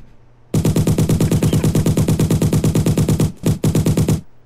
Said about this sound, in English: Oh, it's like, oh no, it's a, it's a prop for the show. It's just a fake Tommy gun. It's okay.